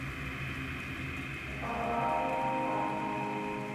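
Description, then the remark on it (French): Steady, soft hiss of rain falling, a dense even wash with no distinct drops, over a faint low tonal hum that thickens slightly partway through. No voices. “Et soudain, la pluie.”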